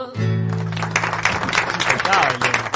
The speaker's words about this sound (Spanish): Ahora sí pude aplaudir.